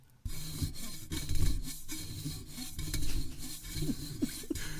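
Steady scratching and rubbing against a hard surface, a continuous rasping texture with small uneven strokes, heard alone without any talking.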